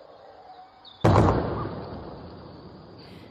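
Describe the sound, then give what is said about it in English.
A single sonic boom from a jet flying extremely fast, a Eurofighter Typhoon intercepting an aircraft, over Kent, England, around lunchtime, captured on a Ring doorbell: a sharp, heavy blast that rolls off into a long rumbling decay over a couple of seconds, outdoors over steady background hiss with no voices. “It was, in fact, a sonic boom. It happened about lunchtime and was caused by a jet flying incredibly quickly.”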